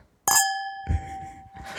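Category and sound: household object, sparkling wine glasses clinking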